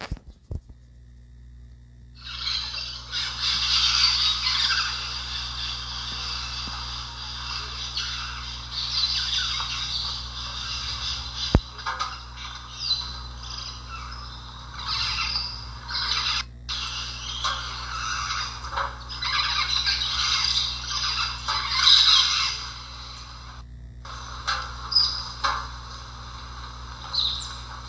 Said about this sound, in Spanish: Y bueno, les voy a colocar por aquí un pequeño audio sobre cómo se escucha un bosque tropical al amanecer. ¿Cuántos animales escucharán? Ustedes intenten identificarlos, ¿sale? Ahí les va.